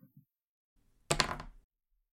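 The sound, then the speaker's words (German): A die is rolled: after a few soft taps and near silence, a loud, bright rattling clatter bursts out for about half a second, then quickly dies away. “Gut, dann lass den Würfel nochmal rollen.”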